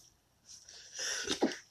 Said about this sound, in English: Bless you. Thank you.